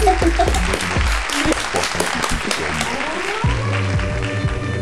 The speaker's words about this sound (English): I think that um, deserves an applause.